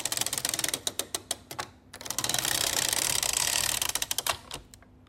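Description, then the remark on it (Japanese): A hole punching machine clatters with rapid, sharp mechanical clicks, a stretch of steady whirring in the middle, then more quick punching clicks before it stops. No voices. “穴開けをし穴開けを使用して穴開け何穴開けってなんだ穴あけの機械穴あけを使用している音ですいいね”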